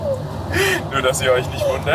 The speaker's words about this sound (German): Wenn ihr das Quietschen im Hintergrund hört, das sind übrigens unsere Scheibenwischer und nicht das Känguru im Kofferraum.